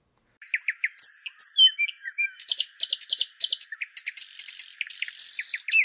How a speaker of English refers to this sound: Tweet tweet tweet tweet tweet tweet. The bird sound. You want me to add some bird sounds for you?